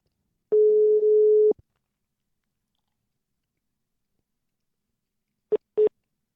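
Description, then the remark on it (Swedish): A telephone ringback tone during an outgoing call: one steady, mid-pitched one-second beep, then about four seconds of silence before two short blips. It is clear, with no talking. “Nu låter telefonen högt i mina öron i alla fall.”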